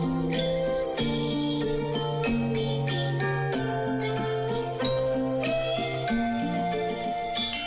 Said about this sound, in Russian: в виртуальную певицу вокалоида …